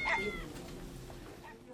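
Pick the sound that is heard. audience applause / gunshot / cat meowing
cat meowing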